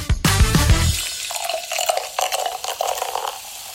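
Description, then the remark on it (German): A long bubbling fizz sound effect, like a carbonated drink: a sudden gush at the start, then a steady stream of small crackling, popping bubbles that gradually quiets. No one speaks. “Boah, ist das ein langes Blubbergeräusch hier hinten raus.”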